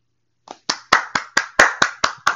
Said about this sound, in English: We get a clap. Justice. One step closer.